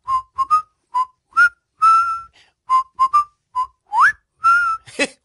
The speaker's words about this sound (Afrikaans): Ooh, dit is vir my 'n groot kompliment. Ek is nogal goed met fluit.